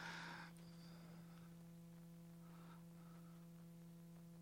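An air conditioner hums steadily and faintly throughout, a constant low drone with a brief burst of hiss at the very start and no one speaking.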